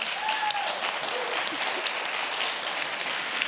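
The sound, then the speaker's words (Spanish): A crowd applauds steadily, welcoming a band at a live broadcast from the Sala Julián Carrillo of Radio Universidad: a dense wash of clapping hands that stays fairly loud and even throughout, with a faint whistle rising briefly near the start. “Y bien, dispuestos a invocar el espíritu de la palabra y del sonido, no quedará más que darle un recibimiento a esta gran banda de excelentes músicos,”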